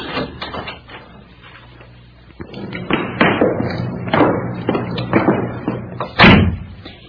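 Heavy, evenly spaced footsteps thud across a hard floor, then halt with a louder final thump beside a door, distinct with no talking.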